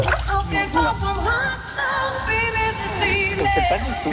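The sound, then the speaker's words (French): A shower runs steadily, a continuous hissing spray of water filling the whole clip, while a female singer sings melodically in the shower over it. “on reste dans la chanson avec cette grande chanteuse internationale qui chantait sous sa douche.”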